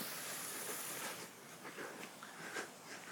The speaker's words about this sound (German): So, jetzt hört man sie auch schon wieder hier, die Wasserfontänen.